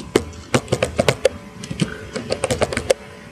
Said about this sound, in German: Er tippt schon gut. Das Schöne ist, ihr werdet dieses Tippen, jetzt was, also was er gerade macht, nicht mehr hören. Durch diese neue Software kann ich ihn praktisch immer rausschneiden.